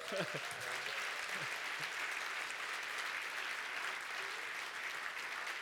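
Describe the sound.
Steady audience applause, a dense wash of many hands clapping at an even level throughout, with a brief snatch of voice audible at the very start.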